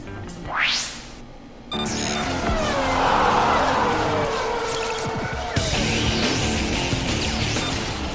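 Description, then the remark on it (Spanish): Formula 1 race car engines roar during qualifying for the 2024 Bahrain Grand Prix: a single engine screams upward in pitch as it revs, then a loud, sustained wall of racing engine noise and track ambience takes over. “rugen los motores de la Fórmula 1.”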